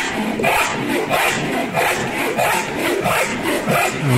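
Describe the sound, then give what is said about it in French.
A hand saw cuts through wood in steady back-and-forth strokes, about two per second, loud, with a rasping, scratchy texture and no one talking. “C'est ça, c'est une scie à bois.”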